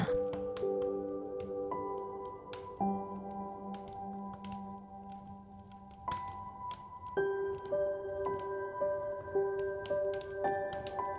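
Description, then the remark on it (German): A fire crackles with irregular sharp pops and snaps, mixed with soft sustained musical tones that shift in pitch every few seconds. “Ganz in Ruhe trinkst du die warme Schokolade und blickst in das knisternde Feuer.”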